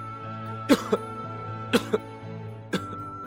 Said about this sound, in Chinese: 象老爹总是很小心，不让自己笑得太厉害，不然他会大声咳嗽的。终于有一天，象老爹又大声咳嗽了，而这一次他压根没有笑。